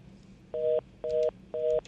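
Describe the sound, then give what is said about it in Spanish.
Three evenly spaced telephone tone bursts as an incoming call is taken on a call-in show, each a steady dual-pitched beep lasting about a quarter second, with short gaps between them over a faint low background hum. “Hay muchas llamadas, vamos a coger esta antes de ir a la pausa.”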